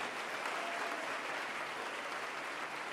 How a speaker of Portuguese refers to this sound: agora aplauda a Deus por isso, todo o coração.